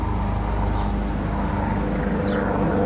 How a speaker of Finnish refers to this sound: nyt kun tässä tuolla menee helikopterissa.